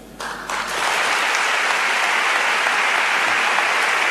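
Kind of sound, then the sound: crowd, audience ovation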